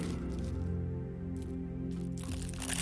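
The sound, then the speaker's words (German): Continuous rustling and crinkling of paper money, with crunchy bursts over a steady low hum, loudest at the end. “Hören Sie das Rascheln des Geldes? Das ist das Rascheln des Geldes”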